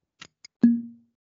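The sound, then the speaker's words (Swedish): Two light taps, then a sharp metallic clink of two drink cans bumping together as two people toast, ringing with a short hollow tone before fading. Fairly quiet, with no voices. “vi skålar väl igen på det jubileumsskål avsnitt nummer 10.”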